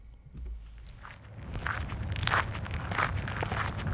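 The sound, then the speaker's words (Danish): Footsteps crunch steadily along a flat, level gravel path on Amager Fælled as people walk, a regular walking rhythm of gritty scrapes, moderately loud, with a low outdoor rumble underneath and no talking. “Jamen, øh, i modsætning til norske fjeld er det en meget øh, behagelig og plan grus sti, vi går på.”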